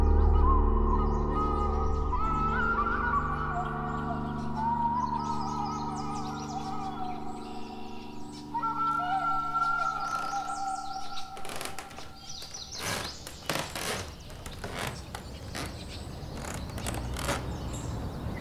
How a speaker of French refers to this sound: Depuis des mois, j'écoute les oiseaux. On le sait, avec la crise sanitaire, le ralentissement des villes, les ciels se sont éclaircis au point où on nous chante le bruissement d'un envol au réveil. Les jours passent et les pépiments s'épaississent.